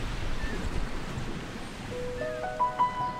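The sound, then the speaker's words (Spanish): Sea waves wash steadily onto a shore in a continuous, rumbling surf, and a few soft sustained musical tones rise in over the last second or so. “Jesús está saliendo de la casa. Y va a orillas del mar.”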